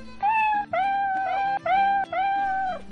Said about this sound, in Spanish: No es nada, solo son unos gatos. Es cierto, además se ven inofensivos.